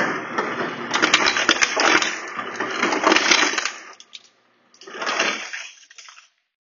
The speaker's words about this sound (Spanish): La verdad es que creo que es tan parecido a veces lo que nos pasa en la cotidianidad como hacer la comida, como ponerle hielos al agua cuando está tibia. Cuando están tibias nuestras relaciones, cuando están tibias nuestras aguas, pues ponle hielos.